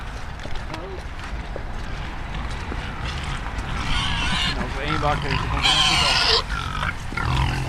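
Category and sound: animal, pigs grunting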